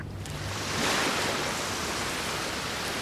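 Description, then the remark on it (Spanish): Steady roar of ocean surf washing onto a beach backed by jungle at a purple sunset, with a broad hiss of wind over it, swelling slightly after the first second and holding loud and continuous throughout. “Por supuesto se escuchaba el sonido del viento y la brisa fresca.”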